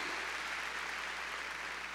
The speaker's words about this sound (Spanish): A ver, démosle palmas fuertes ahí a nuestro Señor.